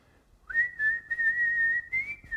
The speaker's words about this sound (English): He started whistling with the guitar.